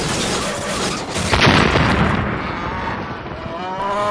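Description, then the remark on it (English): A cow lets out a long, low, drawn-out moo over a loud rumbling, boomy background, the bellow holding steady through the final seconds. “Ah, God bless those cows and the milk they give us.”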